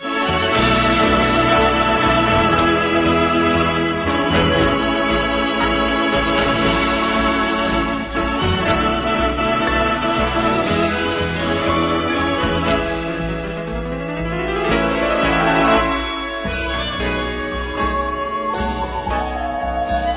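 A lush orchestral song with a female singer carrying the melody over full strings, loud and steady throughout, with sweeping glissando phrases near the end.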